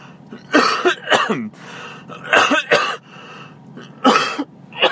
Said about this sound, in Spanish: Vaya, lo siento. Y con tos. Tengo ahí un puntito de resfriadillo, pero bueno.